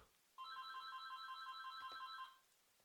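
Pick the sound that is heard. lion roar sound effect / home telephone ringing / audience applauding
home telephone ringing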